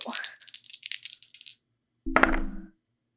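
Red dice rattle briskly in a cupped hand for about a second and a half, then after a short pause clatter down onto a hard surface with a sharp, ringing tumble, rolled by one player for another during a game.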